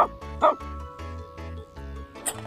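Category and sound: animal, dog barking and yipping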